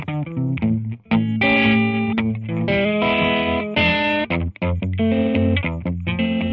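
A loud electric guitar plays a melodic riff with a distorted, effects-laden tone and a steady bass line beneath, filling the whole stretch with no voices; Creative Commons music by the band a band from yamendo.com.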